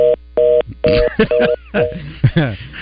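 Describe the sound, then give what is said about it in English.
Loud, steady beeps from an old telephone system repeat in short bursts, like a dial tone and dialing tones, interrupted by bits of muffled voice between and after them. “oh, the old phone system never fails. Right at the perfect time too.”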